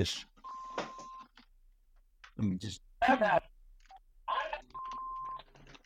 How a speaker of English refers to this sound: my phone ringing here.